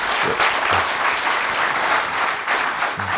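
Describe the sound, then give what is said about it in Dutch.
Steady, dense applause from an audience at a cycling café evening fills the whole stretch, many hands clapping at once in a loud, continuous wash without pauses. “Nou, nogmaals een applaus en uh, dat was het voor vanavond.”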